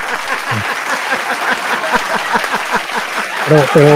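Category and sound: crowd, applause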